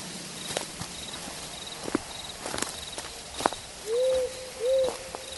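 Night forest ambience: a steady, high cricket drone runs throughout while crunchy footsteps tap irregularly, and two low, smooth owl hoots sound one after another near the end. No one speaks.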